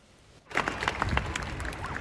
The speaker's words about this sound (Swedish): Mottagandet har inte bara varit positivt eh, då Alberta är en oljeprovins men när eh, just Greta Thunberg höll sitt tal då hördes bara jubel och demonstranterna skrek välkommen Greta.